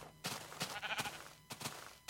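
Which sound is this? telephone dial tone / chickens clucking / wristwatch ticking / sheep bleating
sheep bleating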